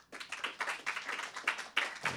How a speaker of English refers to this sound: I thought about this a lot uh, when Elon Musk was on Joe Rogan uh, a few weeks ago. How many of you saw that by round of applause?